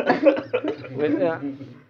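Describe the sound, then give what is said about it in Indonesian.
Several people break out in a few short coughs, mixed with voiced chuckling and vocal sounds, ending in a brief pause. “ini kan eh ini bahaya nih pada batuk semua ini.”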